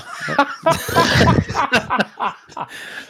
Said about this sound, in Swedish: det ni hörde, kära lyssnare, det var … som Attack hissar upp sin mikrofon för att inte nysa in i den